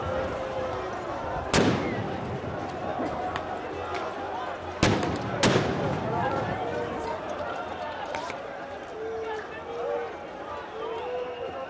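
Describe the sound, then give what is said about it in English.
Tear gas canisters burst with three sharp, booming pops, two of them close together, expelling tear gas to disperse protesters, cutting through a steady wash of crowd noise and voices. “So I think what we're hearing, are, uh, are uh, the, the explosions we're hearing, I think, are uh, tear gas bombs going off and expelling tear gas in an effort to disperse protesters.”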